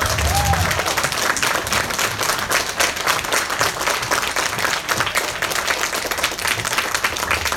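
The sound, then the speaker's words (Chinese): Sustained applause from a large audience welcoming a consultant onto the stage, dense and steady clapping at a fairly loud level for the whole stretch, with a faint murmur of voices underneath. “谢谢大家最热情的掌声。”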